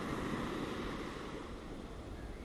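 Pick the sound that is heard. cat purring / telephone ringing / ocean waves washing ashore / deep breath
ocean waves washing ashore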